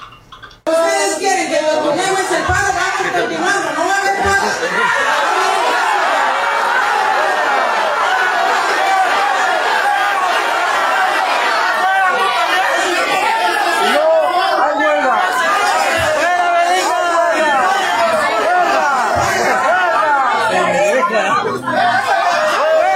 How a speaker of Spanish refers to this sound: al contrario, la corren a la alcaldesa Belina López, que llegó a la reunión del sindicato de trabajadores ahí de la Capama, sección 27. Así, así despedían, le gritaban a Belina López el día de ayer.